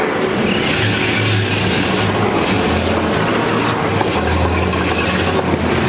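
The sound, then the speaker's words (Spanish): Heavy military trucks carrying troops rumble steadily as they approach an orphanage, a loud, continuous engine drone with a low droning hum and a broad roar of road noise, holding at a constant level with no voices. “Los camiones y tropas del dragón se acercan al orfanato.”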